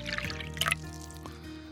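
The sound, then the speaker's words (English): A bartender pours a drink into a glass, a short gurgling stream with a brief bright splash near the middle, over a steady low hum. “I'll pour you a drink.”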